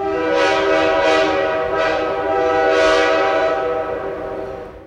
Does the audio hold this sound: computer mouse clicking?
no